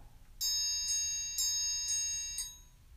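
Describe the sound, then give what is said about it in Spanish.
A bell, one of the sounds being tested in a control booth, rings out with about five evenly spaced strikes. Its bright, high, shimmering tone sustains between hits over a faint low rumble; no one speaks. “Esa campana fue como de.”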